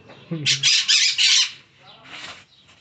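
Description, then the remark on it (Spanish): A parakeet squawks harshly, a loud run of rasping screeches lasting about a second, followed by a shorter, softer squawk after a brief pause. “En este momento estamos viendo cómo siempre está sobornando el perico.”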